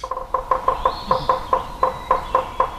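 A woodpecker calls in a steady, rapid series of about ten sharp, tonal notes, evenly spaced, with no voices and only a faint background hiss.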